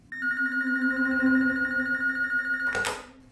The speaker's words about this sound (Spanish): Aún estaba allí cuando sonó el teléfono. Era una llamada de la policía.